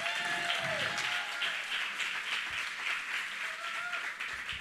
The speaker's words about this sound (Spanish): Recibimos con un fuerte aplauso a Alfredo Álvarez.